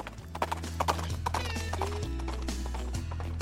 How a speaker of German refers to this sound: Hörst du's? Nein. Ich schon. Ah, doch, doch, es galoppiert.